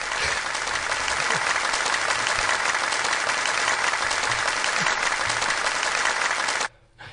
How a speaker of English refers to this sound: Thank you, Side Chicks. Thank you for that. I appreciate the round of applause.